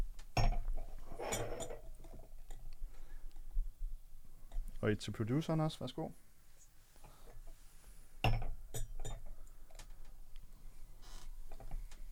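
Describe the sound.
Organic sparkling wine is poured into a glass, with a rising gurgling fill and light glassy clinks, while people talk before and after.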